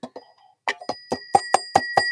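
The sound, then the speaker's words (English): A twin-bell alarm clock rings: after a few soft knocks, a hammer strikes the bells in a quick, steady series of bright metallic dings whose tone lingers and builds between hits. “No, no, that's that's actually a uh, an alarm clock that is you know it has the two bells on top kind of thing and.”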